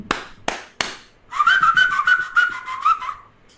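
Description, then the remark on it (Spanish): Three sharp taps, then a loud, shrill whistle blast with a rapid rattling trill that holds steady for about two seconds before cutting off. No one speaks. “Sí, siguen los pitazos, güey.”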